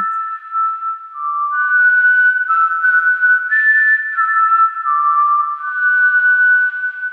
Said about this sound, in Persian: جز صدای باد رد و برق و خوردن شاخ و برگ درختا یه صدای دیگه هم به گوشم خورد صدایی که به مرور و کم کم بلندتر می شد و بهتر به گوش می رسید صدای سوت ویز همونطور که درختار رو دونه دونه ناز و نوازش کرد داشت براشون به آرامش بخشترین حالت ممکن سوت میزد.